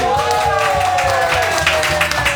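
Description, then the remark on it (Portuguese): A small audience at Casa Geek applauds on cue during a recording, a dense, steady patter of clapping that holds at an even level for the whole couple of seconds, with a faint tonal hum running underneath. “E o mais legal é que quando você tá gravando com uma plateia, mesmo que pequena, você levanta o braço e as pessoas aplaudem.”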